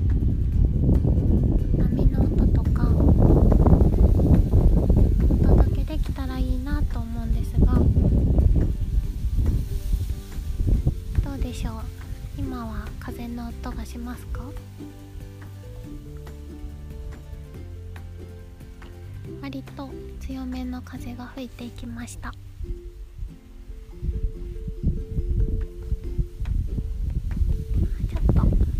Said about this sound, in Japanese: ちょっと初めての外での収録をしてみようかなと思い立ちこのラジオを撮っていますちょっぴり風が強めなので風の音とか葉っぱの音とか